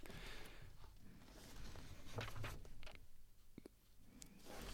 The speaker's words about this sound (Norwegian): Nå blar du fælt Hva leter du etter? Nei, Jeg leter jo etter dette stedet hvor hun sier at Thorvald visste ikke selv at han var dødssyk.